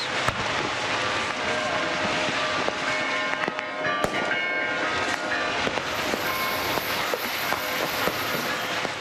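Over 15,000 homemade Easter rockets are fired at churches above Vrontados in the rocket war custom, in a dense, continuous barrage: a loud, steady rushing hiss packed with sharp cracks and pops, while bells ring faintly underneath.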